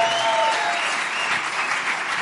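Steady audience applause, a dense wash of many hands clapping at an even, sustained level throughout, with no voices rising above it.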